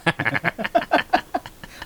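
A chicken squawks in a quick run of about ten loud, harsh clucking calls, close by and fairly steady in rhythm, with no talking.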